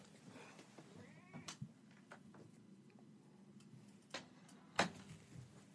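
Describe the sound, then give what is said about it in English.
A cat shut inside a closet meows faintly, muffled, with a few sharp clicks and knocks scattered through otherwise quiet surroundings. “Sorry, I had to let the, the, the cat out of the closet there.”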